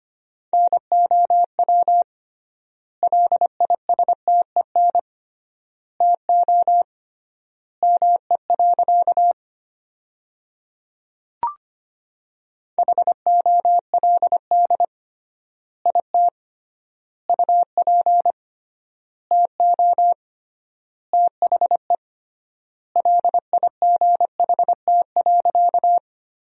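Morse code sentences at 25 words per minute with triple word spacing: a single steady-pitched tone keyed in quick dots and dashes, grouped into words with long pauses between them, clear and alone with no voices.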